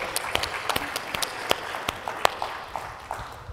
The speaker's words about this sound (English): Well, thank you, thank you again, everybody, for being here. Yeah, clap it up.